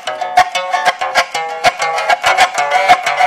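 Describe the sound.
A pipa strummed in a folk-guitar manner: bright plucked chords struck in a steady, lively rhythm, several strokes per second, ringing clearly on their own with no voices.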